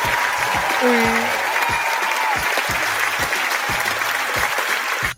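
Loud, steady applause from a crowd fills the whole stretch, a dense wash of clapping with a brief whistle early on, then cuts off abruptly at the end.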